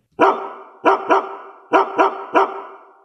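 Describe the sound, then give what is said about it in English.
A dog barks six times, loud, in quick uneven bursts with short pauses between groups. Each bark has a ringing tail. No one is talking. “It's the bark heard round the world.”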